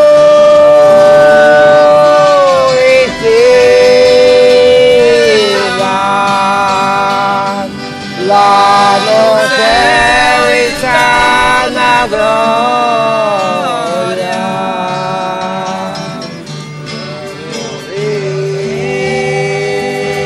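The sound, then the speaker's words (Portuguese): Congada folk music of São Benedito de Cotia plays loudly and without pause, with sliding, wavering melodic lines carried over a dense, steady bed of percussion. “A música e a dança acontecem em meio a muita percussão e às cores das lindas fantasias. Nós vamos ouvir a congada de São Benedito de Cotia”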